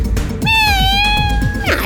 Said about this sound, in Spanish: Este gatito les dice adiós. ¡Miau!